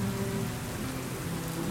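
Steady rain pours down in a continuous, even hiss, fairly loud, with a low rumbling undertone and no voices.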